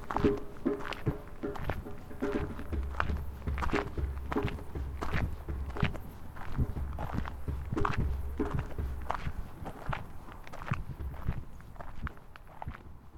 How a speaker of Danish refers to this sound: jeg vælger at sakke lidt bagud med vilje, så jeg kan optage lyden af trummen. Jeg går alene på stien, og der er tæt bevoksning på begge sider.